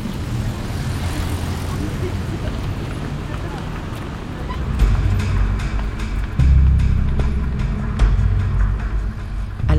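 Engines rumble steadily, then swell in two stages as two cars pull away from a traffic light at green, a low traffic noise with a rising roar and faint clicks over it.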